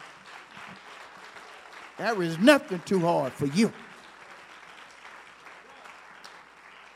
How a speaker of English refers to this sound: We got to give you a clap for that.